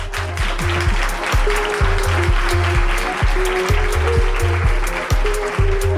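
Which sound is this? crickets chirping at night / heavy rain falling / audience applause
audience applause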